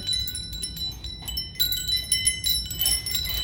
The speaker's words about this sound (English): I love wind chimes. Yes, they sound even more beautiful than I had.